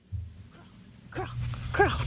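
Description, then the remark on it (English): Zeke (Ezekiel), a two-and-a-half-year-old service dog rescued from a shelter, barks twice, short sharp yelps about half a second apart, over a steady low background hum with no one talking. “Now, she rescued Zeke from a shelter when he was just a pup, trained him to be her own service dog, and he ended up saving her life not once, but twice.”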